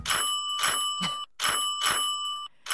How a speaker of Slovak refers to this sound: taký bytový zvonček